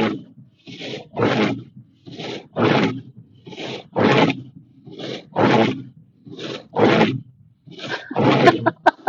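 Rhythmic rasping scrapes of a car windshield wiper dragging snow across glass during heavy snowfall in Beijing, about a dozen harsh back-and-forth strokes in a steady cycle, loud and grating with no talking.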